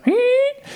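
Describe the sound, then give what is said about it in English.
A single voice imitates a parakeet-like squeak heard in many tracks of an album: a short rising squeal that slides upward and holds a bright, nasal pitch for about half a second before cutting off, clear. “which almost sounds like there was a kind of parakeet or something in the studio when they're recording.”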